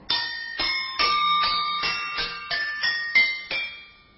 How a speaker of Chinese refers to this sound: 他负责的是击奏乐器当中的云锣。